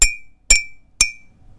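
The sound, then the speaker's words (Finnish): Three evenly spaced taps on a ceramic mug of hot heat-treated milk, each a short, dull clink that dies away quickly with little ringing, fairly loud with no voices. “Ja kuuma kuulostaa tältä.”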